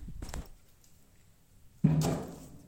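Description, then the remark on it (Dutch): A large piece of wood is thrown into a wood stove, landing with one loud thunk that rings briefly and fades, after a softer knock earlier on. “Dat laatste was omdat het nog een groot stuk hout was.”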